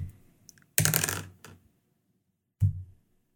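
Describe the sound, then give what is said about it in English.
New dice, rolled for a history check, clatter and tumble across a hard tabletop in a bright rattling burst, then settle; a second, shorter knock follows a moment later. Fairly loud, with no voices. “Okay, come on, new dice.”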